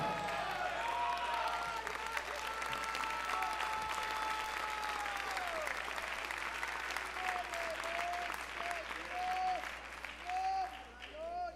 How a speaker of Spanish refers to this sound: ¿Qué aplauso es, hermano? Hasta en eso se les nota caídos.